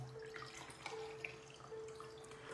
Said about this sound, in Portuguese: Deixa eu colocar água no copo que eu já bebi toda a minha aguinha.